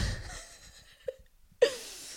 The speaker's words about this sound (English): What's up, people? It's Monday. Uh, and that was your Monday burp. Uh, and that was your second Monday burp.